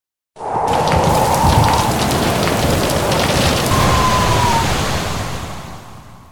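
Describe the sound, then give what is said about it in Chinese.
Heavy afternoon thunderstorm rain pours in a steady, dense hiss with a low rumble underneath, fading out slightly at the end. No one speaks. “午后雷雨还有台风来了，”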